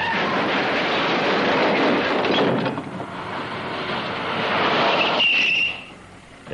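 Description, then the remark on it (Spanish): James Bond's car, fitted with a front machine gun, crashing while chased, after oncoming headlights dazzle him: a loud, rough roar of engine and grinding noise, a brief high squeal of skidding tyres, then the din drops off abruptly. No one speaks. “Pero los faros siguen deslumbrándole y Bond se estrella.”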